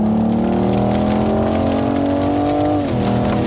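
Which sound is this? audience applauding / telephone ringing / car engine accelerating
car engine accelerating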